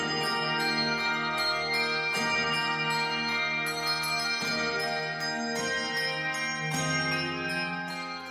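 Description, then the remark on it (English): The Arsis Handbell Ensemble plays a slow, ringing piece on Malmark bells, sounding bright chords every second or two that shimmer and sustain into one another, steady with no voices. “The music you're hearing right now, this is the Arsis Handbell Ensemble. All Malmark bells, not a single Schulmerich.”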